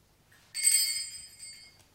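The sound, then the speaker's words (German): A single small bell, rung to summon a servant, rings out clearly, its bright metallic tone sustaining for about a second before fading away, heard on its own without any voices. “Man klingelt und dann ereignet sich was.”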